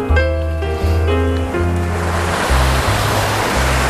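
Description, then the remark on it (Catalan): Steady sea surf washes and rushes, growing fuller over the few seconds, with sustained musical tones playing underneath and no voices. “Aquí, bressolats per aquesta mar antiga que ens uneix a tots, fixeu-vos, no?”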